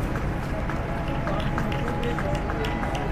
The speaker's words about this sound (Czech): Když muži v černém odnášeli rakev zpět do baziliky, lidé vstali a vyprovázeli ostatky Benedikta XVI. potleskem.